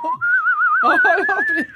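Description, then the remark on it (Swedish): A person whistles a short wavering tune, the pitch wobbling with vibrato and gliding upward. Partway through, a voice joins in underneath the steady whistle. “Vad hette han som visslade? Så?”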